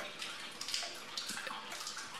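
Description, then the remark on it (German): A steady hiss of shower water pours continuously, a fairly soft, even spray with small splashy flickers and no voices. “Gut, ich gehe unter Dusche.”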